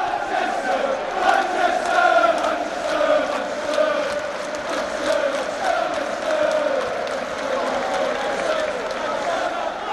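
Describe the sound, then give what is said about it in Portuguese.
A stadium crowd of Manchester football fans sings together, chanting "Manchester, Manchester" in homage to the city and also singing for coach José Mourinho: a dense mass of voices carrying a slow, wavering melodic chant that stays loud and steady throughout, with crowd roar underneath. “mas a gente vê aí também a torcida cantando muito é, Manchester, Manchester, né, em homenagem à cidade, e cantando também muito para o técnico José Mourinho.”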